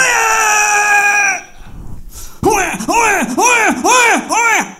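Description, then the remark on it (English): A voice mimics a crying baby: one long held wail, a breathy gasp, then five loud, rapid rising-and-falling wails in quick succession, intense. “Louder, faster, longer. And suddenly I'm not hearing a baby cry anymore.”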